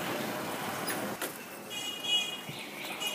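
Steady, noisy street traffic with cars, electric bikes and motorbikes rumbling past, a broad continuous wash of engine and road noise, with brief high electronic whines and a faint horn-like tone cutting through, on a road about 300 metres from Heping Gate.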